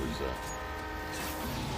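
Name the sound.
train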